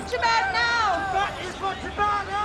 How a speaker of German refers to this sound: Februar 2012. Vor einem Kongresshotel in der Innenstadt von LA protestieren mehrere hundert Menschen gegen die Unterdrückung der Bevölkerung in Tibet durch die chinesische Regierung.